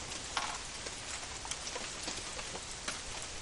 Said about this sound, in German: Aber ich meine, die liegt jetzt hier noch schon eine Stunde im Regen. Also neben dem Regen quasi. Sollte man auch ein bisschen Feuchtigkeit mitbekommen. Luftfeuchtigkeit.